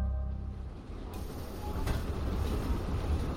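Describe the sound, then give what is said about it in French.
A steady, heavy rumble of a commuter train rolling along the rails, loud, with one brief metallic clank partway through and no voices. “À cette époque, Jay-Z utilise des trains de banlieue pour transporter les pains de coke que Calvin lui confie.”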